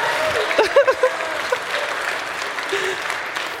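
An audience breaks into a round of applause, a dense, steady wash of clapping that carries on throughout with a few sharper claps and brief vocal sounds early on.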